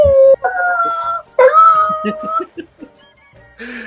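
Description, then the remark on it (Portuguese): A neighbour's dog howls in several long, wavering cries, each drawn out with a rising and falling pitch, followed by a few short yelps and a brief final whine. “o cachorro aqui do vizinho, como é que ele late?”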